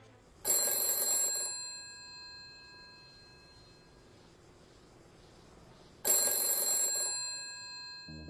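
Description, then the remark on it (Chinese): A telephone bell rings in two loud, bright bursts about five seconds apart, each about a second long with a ringing tail that fades into a quiet background hum, in a scene from the British TV drama The Serpent where a character phones others to share good news. No one speaks. “白嫂立刻给迪娜和雷米打电话，分享这个好消息，他们再也不用冒险当卧底了。”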